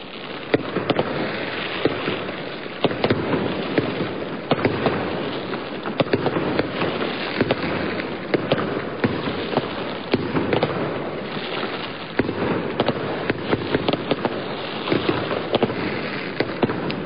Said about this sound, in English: Fireworks were set off celebrating the historic win.